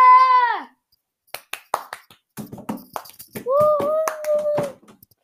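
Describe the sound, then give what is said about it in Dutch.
Scattered applause for the schuimpje, a foam sweet announced as number one in a ranking of Sinterklaas sweets: a brief run of irregular, sharp hand claps, framed by a falling whistle-like tone at the start and a sustained two-note tonal sound near the end, with no talking. “Graag een groot applaus voor het schuimpje!”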